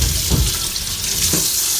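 Steady running tap water splashes into a sink with faint clinks of dishes being washed, a continuous close hiss with no voices.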